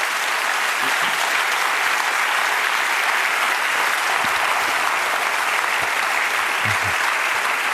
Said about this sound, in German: Applaus